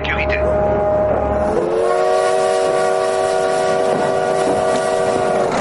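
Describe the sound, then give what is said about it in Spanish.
A train rumbles along the rails at Nizhneudinsk railway station, 450 kilometres from Irkutsk, while its horn blares loud, a long sustained blast that drops slightly in pitch partway through and holds to the end. “Estación de tren de Nizhneudinsk, a 450 kilómetros de Irkutsk.”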